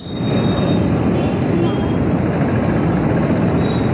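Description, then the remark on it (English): A dense, steady roar of road traffic in unrelenting rain, loud and continuous from start to finish, with a heavy low rumble and no single vehicle standing out from the wash of noise. “And dizzy traffic.”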